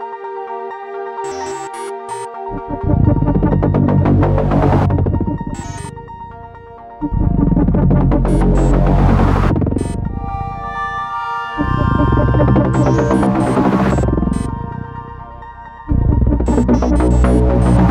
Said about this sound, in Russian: Да, я напоминаю, что все звуки, которые вы слышали только что, были как раз-таки записаны с использованием исключительно синтезатора Юпитер 8, а точнее его эмуляция